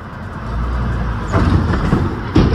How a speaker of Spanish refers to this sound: Eh, es que vienen dos carros y ninguno se dio cuenta. Solo se ve cómo saltan los carros. Mira, ahí van, Ahí, vienen dos carros, No se ve el túmulo.